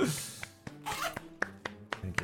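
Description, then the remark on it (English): A rasping zipper-like sound as a microphone is put away, with a broad scraping sweep followed by several sharp clicks and knocks at uneven intervals. “It sounds like you're zipping up your fly, by the way, when you put the microphone away.”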